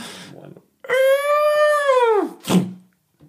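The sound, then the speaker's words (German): A door creaks open in one long, drawn-out, tonal groan that slides downward in pitch at the end, followed by a single dull thump. No voices accompany it. “Ich mache ich mach die Tür nochmal auf.”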